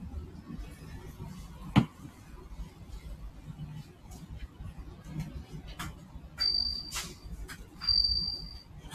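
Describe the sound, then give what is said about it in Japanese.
A bell cricket (suzumushi) kept in an insect cage at a shop counter chirps in two sustained, high, ringing trills of about a second each, over a low murmuring background with a sharp click early on. “スズムシの声してる。”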